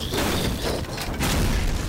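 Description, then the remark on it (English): A sustained, roaring explosion rumbles loudly for two seconds, with dense low-end boom and crackling bursts layered on top, like a chain of blasts rolling into one another, as the front of a ship explodes in a massive chain reaction of fire. “as it goes, there's just a massive chain reaction explosion of fire.”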